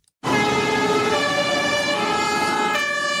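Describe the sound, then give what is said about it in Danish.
A fire engine siren blares loudly and steadily, its stacked harmonic tones holding a sustained wail with a rumbling engine beneath, starting abruptly after a brief silence. “Når der er brand et sted, så skal det jo helst lyde sådan her inden for få minutter.”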